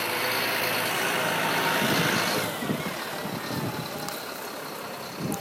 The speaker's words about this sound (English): There's a car coming directly at me.